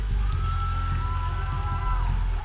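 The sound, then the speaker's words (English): An audience claps together as a final clap offering in a steady, dense wash of applause that holds loud for a couple of seconds, with sustained musical tones ringing underneath and murmurs of voices mixed in. “If you believe that, your final clap offering right here.”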